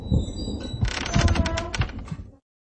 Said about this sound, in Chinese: 就在这个时候，突然响起了开门声，